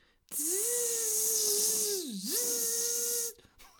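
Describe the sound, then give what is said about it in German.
A voice imitates a whining mosquito with a steady, nasal buzz lasting about three seconds; the pitch dips briefly and recovers over a faint hiss, then cuts off abruptly. “Gott, so eine scheiß Mücke.”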